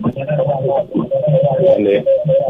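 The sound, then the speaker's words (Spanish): A radio plays steadily behind a phone line, its muffled, narrow-band voices and sound running continuously at moderate loudness with brief dips, heard as if through a handset. “Baja el radio, distinguido.”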